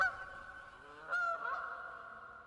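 Several geese honk in a loose, overlapping chorus, with a louder burst of nasal calls midway; fairly close and moderately loud, no talking.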